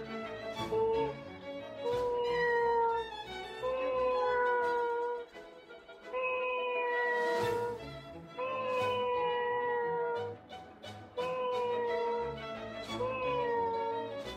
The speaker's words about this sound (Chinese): 嗯，这个是猫叫。